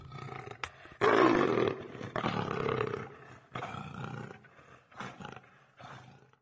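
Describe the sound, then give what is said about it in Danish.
A leopard roars in a series of rough, rasping bursts, a loud opening call followed by four shorter, fading grunts, with no voices present. “Det er en leopard, ja.”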